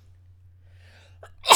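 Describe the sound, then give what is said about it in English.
A single sharp sneeze bursts out loud after a brief, faint intake of breath, with a steady low hum running underneath throughout. “Damn, bless you.”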